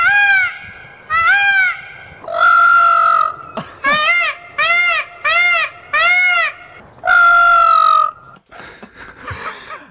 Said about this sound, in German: Nein, kein Affe, es ist ein, ein Vogel, das ist richtig, ja. Das ist. Äh, also es ist eine Vogelart. Eine Vogelart, ja, ja.